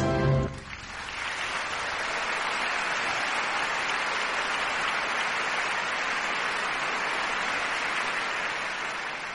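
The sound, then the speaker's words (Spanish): Sustained applause from a crowd at Escuela Secundaria 77 as the school's vice-principal is introduced to speak, a steady dense wash of clapping that holds evenly for about nine seconds after a brief lower-pitched sound at the start. “Aplausos.”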